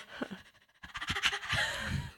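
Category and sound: vocal imitation, imitated heavy panting breath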